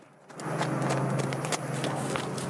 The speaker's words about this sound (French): mardi, 47 feux de forêt se sont déclarés les villages continuent d'être évacués pour la sécurité des habitants ainsi que les animaux, comme sur ces images impressionnantes à Pournari, où des chevaux sont évacués avec l'épaisse fumée en arrière-plan.